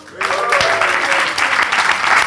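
An audience breaks into a round of applause after a brief quiet start, many hands clapping densely and loudly in a steady wash of sound with a few faint tonal traces underneath.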